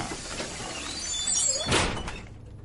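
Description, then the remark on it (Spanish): A bus door slides open with a hissing rush of air that peaks into a brief thud, heard once with no voices, then the sound fades out. “Abra la puerta.”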